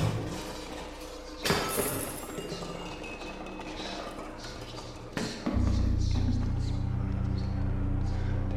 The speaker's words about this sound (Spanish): Una noche ya estábamos todos dormidos, cuando un fuerte escándalo nos despertó a todos. Se escuchaba como si alguien estuviera en la cocina, arrojando y estrellando todos los platos.